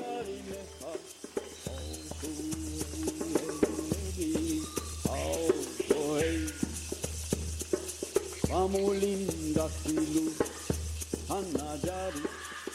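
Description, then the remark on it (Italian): Sounds of a sacred tribal ceremony in the Amazon rainforest: a magic song, called Icaro by South American peoples. A wavering, chant-like voice rises and falls over a steady low drone, while sharp rattling clicks tap out a continuous rhythm throughout. “Questi sono i suoni che potreste sentire nella foresta dell'Amazzonia durante una cerimonia sacra delle tribù”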